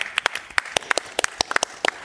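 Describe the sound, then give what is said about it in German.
Scattered audience applause in a hall of the Israelitische Kultusgemeinde, thanking patrons for their support: a few hands clapping in sharp, irregular bursts, moderately loud, with no voices over it. “mehrere Hände Dafür von, uns einen Applaus.”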